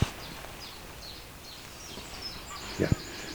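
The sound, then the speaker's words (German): Faint bird chirps over a soft outdoor background, then near the end a short, harsh double rasp of a Eurasian jay's call, louder than the rest. “Die Eichelhäher haben meine Frau ja mal ziemlich veräppelt, ne?”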